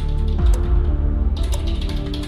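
Rapid clicking of fingers typing answers on a computer keyboard, fairly crisp, with a brief pause before a quicker run of keystrokes, all over a steady low background hum.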